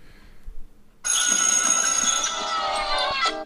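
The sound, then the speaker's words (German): After a second of quiet, a school bell rings loudly and continuously for just over two seconds with a harsh, buzzing metallic clang, then cuts off abruptly. “Ich glaube, die fangen immer mit einer Klingel an.”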